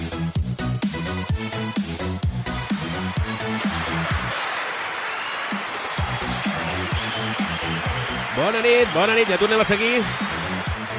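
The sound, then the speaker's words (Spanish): Steady applause from an audience fills the background while people talk loudly over it in the foreground, the clapping continuing as a dense, even wash throughout. “que suena que aquests aplaudiments?”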